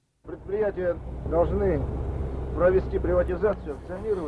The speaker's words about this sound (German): Auch im Jeep hin und her geschüttelt auf holprigen Straßen.